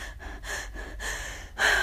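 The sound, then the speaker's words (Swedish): A person imitates frantic gasping, a quick run of four or five sharp, breathy inhalations, the last one louder and more strained. It mimics struggling to breathe from stress while lying in bed at home. No talking. “och så kan jag liksom knappt andas för jag bara, jag får inte glömma det här, jag får inte glömma det här imorgon, jag får inte glömma det här.”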